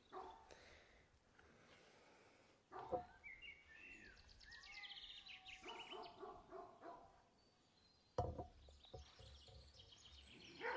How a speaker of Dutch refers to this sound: Ondertussen is de hond van de andere buren ook beginnen blaffen. Dus nu zijn ze tegen elkaar aan het blaffen. Voor een keer is mijn hond niet.